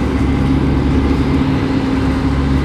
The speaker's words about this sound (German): wir fahren jetzt auch immer mehr Züge rein. Und der hier sieht aus wie meiner.